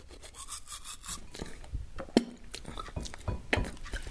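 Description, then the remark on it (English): Steady scrubbing of a toothbrush against teeth, with wet bristly strokes repeating in an uneven rhythm and a couple of small clicks, no speech. “When I first used my housemate's toothbrush, it was an accident.”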